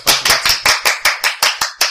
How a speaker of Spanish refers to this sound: Pero bueno, le vamos a dar un aplauso. Por supuesto